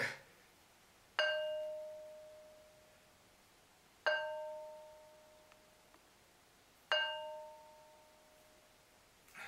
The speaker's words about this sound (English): and there you go demonstration how these stones ring like bells and they were used in all kinds of ways and fashions just like the ankh to create specific vibrational frequencies and specific notes to use as a form and a source of energy.